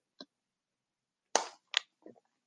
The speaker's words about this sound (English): Sorry to take a sip of my water there.